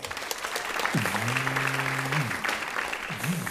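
A live show audience applauds on cue for a submitted question asking whether croissants are bread rolls, dense clapping at a fairly loud, even level, with a low sustained tone rising and falling in the middle and a brief tonal blip near the end.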